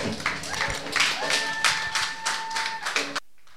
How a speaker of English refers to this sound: yes, please. Let's clap for her. Thank you.